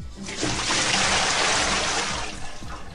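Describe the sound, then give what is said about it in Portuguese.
A big gush of water pours out of a bucket steadily for a few seconds, loud, a rushing, splashing stream with no voices. “Então desperta e para te ajudar, eu vou jogar um balde de água fria na sua cabeça.”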